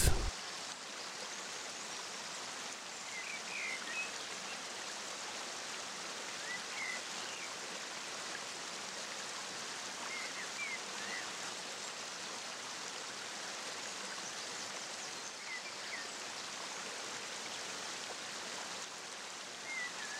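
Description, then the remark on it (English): A steady, continuous rush of falling water from a waterfall, a broad even roar, with no pauses or voices for the full twenty seconds. “Now, listen to the continuous sound of the waterfall.”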